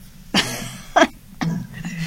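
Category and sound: human body sound, coughing and throat clearing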